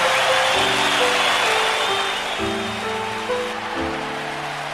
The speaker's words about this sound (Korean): 트랙을 다 돌고 난 후 요나단이 잠시 멈춰서자 관중석에 앉아있던 믿음의 거장들 수천 명이 기립해 우려와 같은 박수를 보내기 시작했습니다.